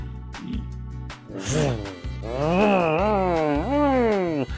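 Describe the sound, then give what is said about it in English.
A voice imitates revving car engines, with a few drawn-out rising and falling vroom sounds that swell and dip in pitch. It is fairly loud, over a low steady hum. “As all of the cars are revving their engines, you see uh, all of these people are revving their engines”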